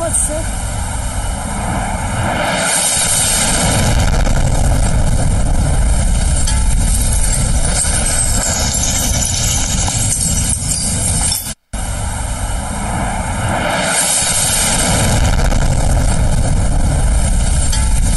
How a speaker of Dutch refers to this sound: Maar laten we even kijken hoe Kiev wordt gebombardeerd.